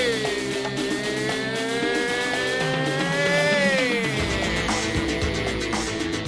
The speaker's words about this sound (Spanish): coche, que viene el coche.